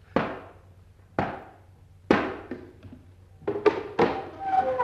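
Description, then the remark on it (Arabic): Three loud, hollow knocks on a door, spaced about a second apart, followed by a quick flurry of further thuds and clattering as something moves. “الباب التاني وادي التلات حلقات اما خبط تلات خبطات”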